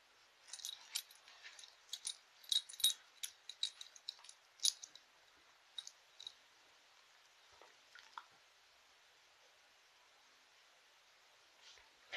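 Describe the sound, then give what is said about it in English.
Metal tags on the collar of Ted, a pet, jingle in quick, rhythmic bursts as he scratches an itch, busy for several seconds and then trailing off into a few sparse clinks, with no voices. “Um, and if you heard the jingling in the background, that's just Ted itching.”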